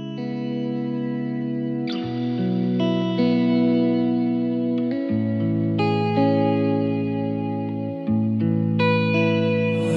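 A hip-hop track's instrumental opening plays: loud, sustained synth chords with a warm, effected tone shift every couple of seconds, with no vocals or talking.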